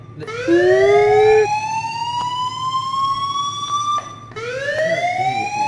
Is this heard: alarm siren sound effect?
yes